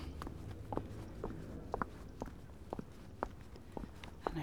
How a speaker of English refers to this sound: I'll walk towards my own pond now and see what I can find. So here I go. my garden clogs, you might hear them.